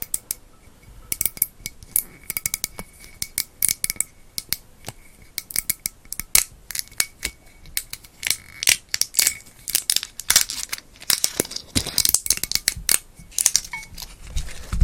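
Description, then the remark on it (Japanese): Sharp, rapid crackling and snapping as the still-sealed cap of a large gin bottle is twisted open, a dense series of loud, bright clicks that bunch together and intensify toward the end, with no talking. “ちょっと音が強すぎたねごめんなさいね今のパキパキ音はちょっとピークに行きましたねごめんなさいね”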